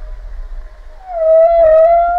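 A humpback whale's song: a long, rising-and-swelling tonal moan with rich harmonics over a deep rumbling low end, growing louder in the second half, heard alone without speech.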